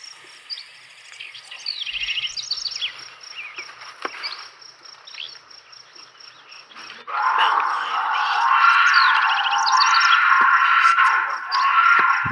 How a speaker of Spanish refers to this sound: Sí, se oye como un grito muy un mamón, pero agudón, así. Ese es un gato montés gritando. Ok. Entonces, era un gato montés.